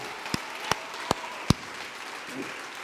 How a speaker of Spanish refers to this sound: Vamos, dale ese aplauso.